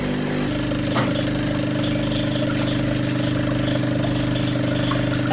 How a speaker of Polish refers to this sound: Dobrze, to teraz yy, rozpoczynamy płukanie tej całej maszyny.